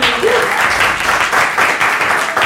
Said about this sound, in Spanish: Gran aplauso